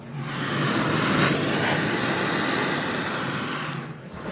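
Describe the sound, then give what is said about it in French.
A kitchen blowtorch used on a macro roars with a steady hiss of flame, rushing and even for about four seconds with a faint low rumble underneath and no voices. “c'est le bruit du chalumeau sur le macro.”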